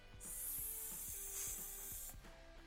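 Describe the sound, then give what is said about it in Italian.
A voice produces a long, steady hissing 'sss' imitating a snake, demonstrating one of the sounds of the Italian letter S, lasting about two seconds, fairly loud, with faint rhythmic low knocking sounds underneath. “La S può avere questo suono lì.”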